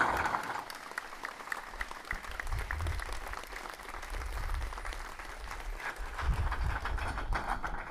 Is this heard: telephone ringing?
no